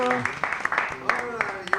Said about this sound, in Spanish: Le damos un aplauso también. Venga.